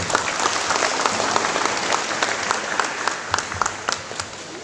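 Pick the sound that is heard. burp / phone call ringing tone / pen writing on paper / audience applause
audience applause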